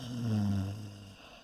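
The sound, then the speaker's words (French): A single deep, rumbling snore, fairly loud, drawn out for under a second before trailing off into quiet. It may be a voice imitating snoring. “Comme cette vieille femme ronfle fort, je vais aller voir si tout va bien.”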